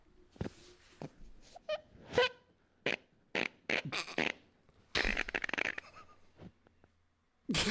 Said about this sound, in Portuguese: É um, é, um, é um peido que nós temos que analisar que isso pode ser um, um novo tipo de peido.